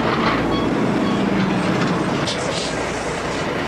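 A heavy diesel engine of the vehicle Rhino rumbles steadily and loudly, with bursts of air brake hiss rising over it partway through; no one speaks.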